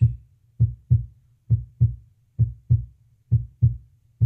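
A heartbeat sound effect, played from a device's sounds and nature sounds menu, thumps in low, muffled double beats, lub-dub pairs repeating at an even resting pace, clear with no voices.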